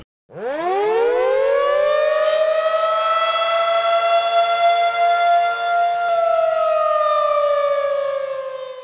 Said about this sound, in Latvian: Tātad jautājums ir, kā sauc to, kas tur skanēja? Sirēna. Sirēna. Sirēna. Precīzāk. Civilās aizsardzības sistēmas sirēna. Vienkāršāk, bet precīzāk.